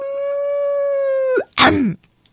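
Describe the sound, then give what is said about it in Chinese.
A wolf howl holds one steady, bright pitch for over a second, then dips away. After a brief pause comes a short, rough, snarling burst, and then silence. “小朋友，我们都是动物诶，如果去大野狼诊所看病，会不会被大野狼嗷？”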